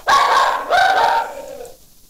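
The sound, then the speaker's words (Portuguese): A small female dog lets out two loud, high-pitched barks, the second drawn out and trailing off into a fading whine, with no one talking. “Segura a cachorrinha aí.”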